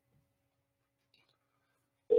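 Near silence gives way to a phone line's ringing tone as a call is placed to the points leader of the Checkers and Wreckers Pro Late Model Series. The tone starts abruptly at the very end as a steady, fairly loud electronic hum with no voices.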